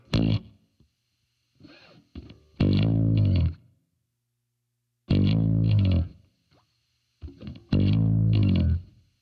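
A bass guitar plays a simple chorus riff in short, loud, gritty low phrases, each repeated after a brief pause, with fainter plucked notes in between and no voices.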